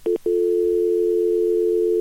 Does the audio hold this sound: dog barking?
no